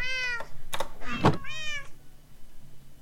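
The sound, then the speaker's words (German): A cat meows twice, short, with a couple of dull knocks between the meows and quiet background afterward. “Miau!”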